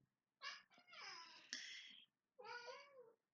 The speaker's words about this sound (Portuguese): meu gato, tá aqui concordando, como vocês puderam ouvir.